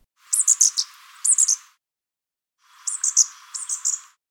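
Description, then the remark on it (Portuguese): A fairy-wren's high, rapid twittering song plays in two short bursts, then after a pause a brown thornbill gives a closely matching imitation. Clear and alone, with no talking. “Primeiro, o canto do Fairy Ranks e depois o canto do Acantisa castanho.”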